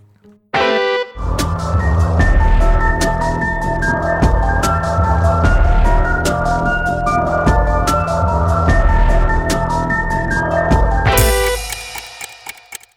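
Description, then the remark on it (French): Loud, throbbing electronic soundtrack music from the film Resident Evil, with a steady pounding beat under sustained droning tones, building tension before ending in a bright, harsh burst. No one speaks. “C'est la musique de Resident Evil.”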